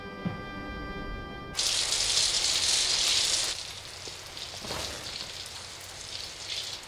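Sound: shower water running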